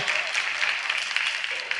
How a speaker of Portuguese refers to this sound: O, essas palmas aqui são daqueles que cabem numa Kombi da torcida do Fluminense quando há jogos ali.